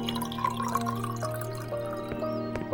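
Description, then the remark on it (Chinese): Water is poured into three glass cups, a steady liquid stream with a ringing tone that rises in pitch as they fill, punctuated by a few sharp drips and clinks. No one speaks. “徐光明找出三个玻璃杯，倒上水给聂远他们。”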